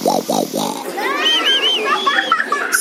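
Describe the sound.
A storyteller's voice imitates the gunny wolf snoring with three quick, rhythmic snorts, fairly loud, followed by a high, wavering vocal sound that slides up and down.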